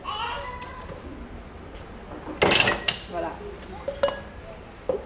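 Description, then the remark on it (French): Dishes and glasses clink and clatter as they're handled, a few sharp irregular knocks over a low murmur of background voices. “donc ça sert d'avoir de la vaisselle à disposition aussi.”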